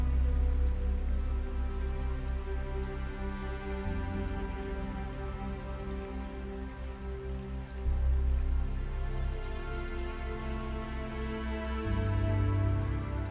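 Steady light rain patters evenly throughout, layered over a soft sustained musical drone whose low chords shift roughly every four seconds. No one speaks.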